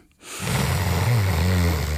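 After a moment of silence, a deep, loud breath rushes in during a short eyes-closed breathing exercise, a steady airy stream with a faint rough, throaty edge that lasts to the end.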